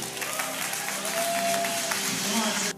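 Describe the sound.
A room full of people claps steadily, a dense, sustained wash of applause with some faint voices and a brief tonal hum mixed in, ending abruptly.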